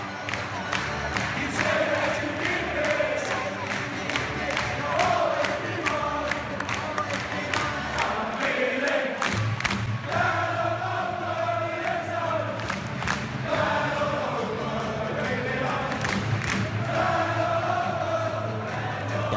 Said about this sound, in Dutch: Maar als dat het hele stadion mee begint te zingen, mee te klappen, ja, dan, is het toch moeilijk om daar niet door gegrepen te worden, jongens.